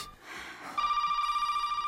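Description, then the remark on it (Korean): A telephone rings again at night with a steady, bright electronic tone that holds for over a second, loud and unbroken, after a brief stretch of soft background noise; it is a call from the listener's mother. “또 전화가 왔네요.”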